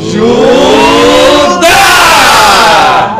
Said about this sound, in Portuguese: E o grito de guerra, como é que é?